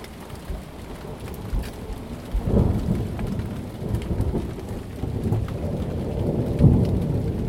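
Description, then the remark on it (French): Steady rain pours down while low, rolling thunder rumbles through, swelling around the middle and again near the end, as a thunderstorm breaks, heard from a terrace and recorded on a Zoom recorder. No voices, just the continuous hiss of the storm. “j'ai ressenti un apaisement soudain, un océan de tendresse lorsqu'un orage a éclaté”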